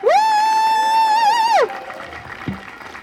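A crowd applauds, opening with a loud, sustained high-pitched cheer for over a second, then settling into a softer wash of clapping and crowd noise.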